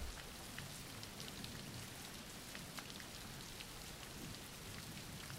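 Steady rain falls without pause, a dense, even hiss spread across the whole range, with scattered brighter drop ticks and a low rumbling wash underneath. No voices are heard.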